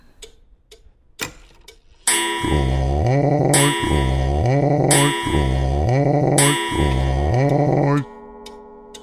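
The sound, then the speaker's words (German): A novelty moose clock sound effect: a few faint ticks, then four loud, evenly spaced bellowing calls, each sliding downward in pitch, filling the foreground with no talking over them. “Ja, zum Beispiel die unvergessliche Elchuhr.”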